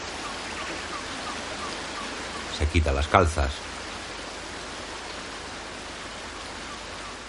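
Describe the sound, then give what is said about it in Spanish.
A river flows with a steady, even rush of water that fills the whole recording, while a voice speaks briefly over it near the middle. “Una mujer vestida de hombre se despoja de sus botas en el río.”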